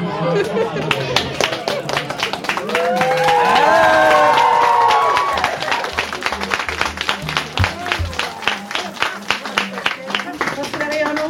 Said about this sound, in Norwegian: Folkens, opp med stemningen. Folkens, vi må klappe!